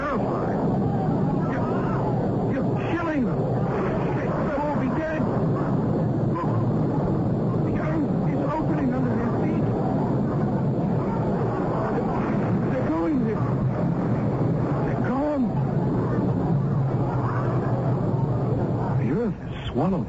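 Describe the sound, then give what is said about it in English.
Loud thunder rumbles without a break for about twenty seconds in a dark sky above a castle, with lightning; a dense, low, roaring wash, with a few brief higher, voice-like cries rising above it now and then. “No, no, no. It's thunder.”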